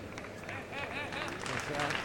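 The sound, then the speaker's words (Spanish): A bullring crowd breaks into an ovation, dense clapping and cheering voices swelling steadily louder across two seconds, with shouts rising above the roar. “Y se lleva la ovación del público.”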